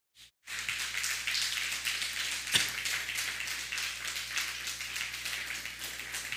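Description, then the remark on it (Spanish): After a brief silence, an audience breaks into steady, dense applause for a viewer watching from the state of Maryland, continuing evenly for several seconds, a crackling wash of many hands clapping with no voices over it. “Dan un fuerte aplauso a Maryland, ¿por qué no?”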